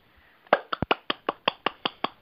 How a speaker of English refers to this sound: The sound of clapping. I'm bowing. I'm bowing. Thank you.